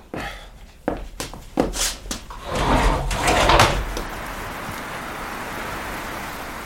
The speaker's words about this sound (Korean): 좀 답답한데 창문을 열어도 될까요? 그럼요.